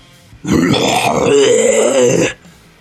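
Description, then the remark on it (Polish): A person on all fours pretends to vomit, making a long, throaty growling retching noise, rough and harsh, sustained for nearly two seconds, with no other speech around it. “ten odruch sprawia, że on spada na, e, na pokład, e, ratuje się rękoma, żeby nie uderzyć, wiesz, twarzą w pokład, więc jest na czworaka i niby wymiotuje, ale ten odgłos jest odgłosem warczenia.”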